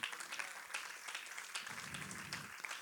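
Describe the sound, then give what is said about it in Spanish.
An audience applauds the King in a steady, dense wash of many hands clapping, holding a fairly even, full loudness for about three seconds with no voices speaking over it. “Dele fuerte ese aplauso al rey.”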